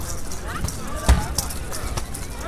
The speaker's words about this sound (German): Eine halbe Stunde vor dem Anpfiff. Die Spieler der deutschen Nationalmannschaft laufen sich warm. Jeder von ihnen dribbelt einen Ball geschickt über den Kunstrasen.